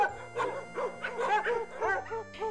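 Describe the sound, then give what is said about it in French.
Three wagging dogs rush toward arriving visitors at a large dry-stone house, barking and howling together in an excited, overlapping chorus, loud, with yips and wavering howls repeating throughout and no talking. “Votre arrivée semble tout d'abord passer totalement inaperçue, sauf pour les trois chiens frétillants qui se ruent vers vous, toutes truffes dehors.”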